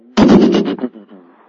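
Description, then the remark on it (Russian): A sudden loud burst of thunder rolls in a few rapid booming pulses, then trails off into a lower, fading rumble within about a second. No one speaks. “И обратите свое внимание, в этот момент внизу раздается гром.”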